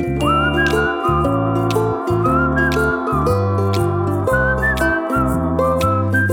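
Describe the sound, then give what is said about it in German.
A person whistles a bright, wandering tune, loud, while waiting for a download to finish, over a steady, rhythmic musical backing that pulses in even blocks with brief pauses. “Pfeif noch ein bisschen weiter.”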